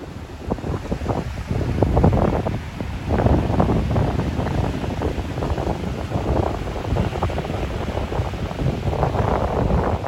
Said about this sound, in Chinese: 戴上耳机，我让你听听海浪的声音。这是冬天里花莲海边的声音，从这个声音你大概也可以听得出来，风很大。